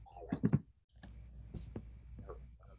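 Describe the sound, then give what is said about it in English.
A handful of soft, irregular keyboard clicks of someone typing with their mic unmuted, with a few louder, thumpier strikes near the start. “You gotta mute your mic you're typing.”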